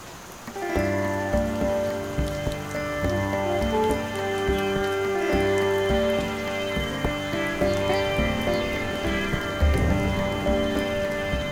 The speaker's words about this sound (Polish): Mimo, że ze wszelkiej roślinności spływały strugi deszczu, najważniejsi mieszkańcy lasu nie musieli niczym się przejmować.